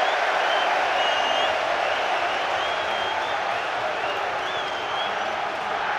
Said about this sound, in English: Home crowd like that.